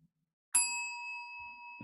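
A single bright bell ding strikes sharply and rings out with a long, steady sustain that fades only slightly, with no talking over it.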